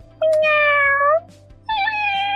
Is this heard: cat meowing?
yes